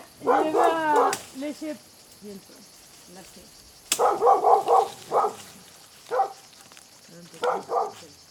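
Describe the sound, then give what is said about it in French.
Two dogs, Momo and Mimi, bark and yip in short, sharp bursts, several quick volleys separated by brief pauses, fairly loud. “On marche chaque jour avec euh, Momo et Mimi, les chiens, et on sort par là.”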